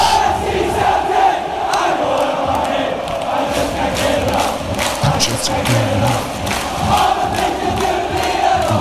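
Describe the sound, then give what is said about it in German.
A huge stadium crowd of Celtic football fans sings a chant set to a reworded pop song, a dense roar of many voices carrying a steady melody, loud and continuous with no gaps for the whole stretch. “Und du hörst, was die da singen, ne?”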